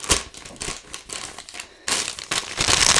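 Close-up crinkling and rustling of a sheet of paper being unfolded, with irregular crackly bursts that grow denser and louder toward the end; no one speaks.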